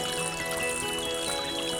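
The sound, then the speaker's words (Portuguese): Water trickles and pours in a steady, continuous stream, with a faint sustained tonal hum running underneath throughout; the water is being blessed during a Catholic blessing of water that recalls baptism. “Deus da vida, abençoe esta água que lembra o nosso batismo, no qual fomos lavados de todo pecado.”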